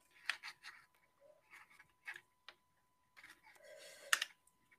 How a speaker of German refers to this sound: Äh, Capri-Sonne auf. Okay. Ich habe gerade Capri-Sonne mit der, mit der Schere aufgeschnitten.